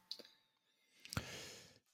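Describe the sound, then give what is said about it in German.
A pen being twirled in the hand: a couple of light clicks, then one sharp click followed by a short rustling scrape that fades out. No one speaks. “Du rotierst einfach nur den Stift, Entschuldigung.”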